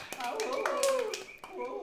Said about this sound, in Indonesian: jadi kita semua sudah menyelesaikan pendidikan di jenjang perkuliahan kita Tepuk tangan dulu dong buat kita semuanya.